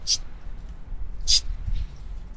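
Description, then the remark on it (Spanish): A voice imitates a "psst" hiss twice, as heard by someone opening a fridge: two short, sharp sibilant bursts about a second apart, with a fainter breathy trace after the second and low background rumble. “En ese entonces este, yo bajé y abrí el refri y escuchaba que me chistaban.”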